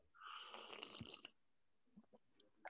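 A single loud, drawn-out slurp of tea, made extra loud on purpose, lasting about a second, followed by a few faint small mouth sounds.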